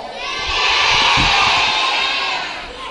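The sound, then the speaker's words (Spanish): A children's audience shouts a greeting together in a loud, sustained burst of cheering voices, swelling and then easing off over a few seconds. “Y como no, vamos a saludar a nuestro público. ¿Cómo estáis, segundo?”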